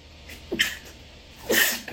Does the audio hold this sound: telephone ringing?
no